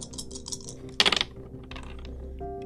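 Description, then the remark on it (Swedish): Dice rattle across a tabletop in a quick burst of hard clattering clicks, fairly loud, with lighter tapping and clicking before and after and no one talking. “Eh, du, du fick två misslyckade tärningar.”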